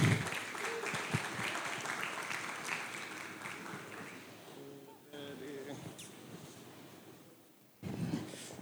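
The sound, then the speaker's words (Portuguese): An audience bursts into sustained applause as two people are called up to the front, dense and loud at first, then gradually thinning as a few voices call out, before another short swell of clapping near the end. “Então, uma salva de palmas.”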